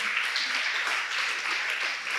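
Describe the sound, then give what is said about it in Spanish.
An audience applauds after a prayer, with dense overlapping claps forming a continuous, even wash of sound from start to finish, and no voices stand out. “Punte sus palmas, fuerte el aplauso.”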